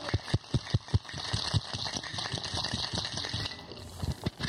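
A cocktail shaker holding a drink with pineapple juice and agave syrup is shaken hard and fast for about ten seconds to chill it, its rapid, steady rattling strokes repeating, fairly loud, with no one speaking.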